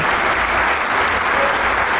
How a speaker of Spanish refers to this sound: Y ahora se pone de pie toda la orquesta para recibir el aplauso cálido y merecido